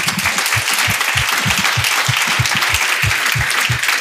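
A crowd gives a speaker a round of applause, dense overlapping clapping at a consistent loud level for several seconds, with a few individual claps standing out and no talking.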